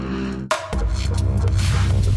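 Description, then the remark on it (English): A low, steady mechanical hum with a faint throbbing pulse from the rotor of the Ingenuity helicopter on Mars, muffled, shifting into a noisier whir after a brief break. No one speaks. “You are listening to the Ingenuity helicopter.”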